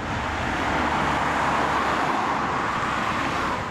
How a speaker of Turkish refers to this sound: İstanbul'a girişler de yoğunlaştı gece yarısı. Trakya'dan İstanbul'a gelen sürücüler Silivri'de uzun araç trafiğine neden oldu. Araç kuyrukları sürücülerin dakikalarca trafikte kalmasına sebep oldu.